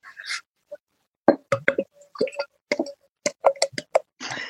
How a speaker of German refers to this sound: Klingt schon relativ groß das Glas, oder? Ja, ja, natürlich. Ähm, das habe ich extra gewählt, weil ich äh, jetzt auch ein bisschen schneller einschütten wollte, damit sich Aha. das besser anhört und ihr quasi euch das Wasser im Mund zusammen